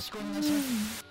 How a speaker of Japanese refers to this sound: 結局でもあの雑音部分が雑音入ってるけど聞こえてるもんねこれねまあ聞こえてますね